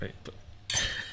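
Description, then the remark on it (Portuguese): Wine glasses clink together in a toast to the Vale do Tejo, one bright chime that rings on briefly after a quiet stretch of low background murmur. “Brinde, um brinde. Um brinde é isto.”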